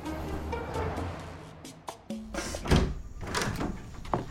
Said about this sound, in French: Papa prend Petit Lapin dans ses bras et l'emmène à la voiture. Il ouvre la porte arrière, met Petit Lapin sur la banquette, attache sa ceinture et passe à l'avant pour le conduire chez Docteur Hibou.